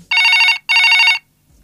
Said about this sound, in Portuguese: Vou até pedir para o meu editor colocar agora então um som de telefone tocando.